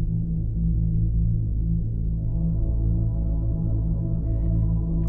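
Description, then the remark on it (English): A soft, steady ambient music drone of sustained low, layered tones holds evenly throughout, with no talking and only a faint, brief brightening near the end. “The obvious sound of my voice and the ambient music playing.”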